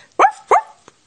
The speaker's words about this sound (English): Soon he jumped away from the hole, barking short, happy barks.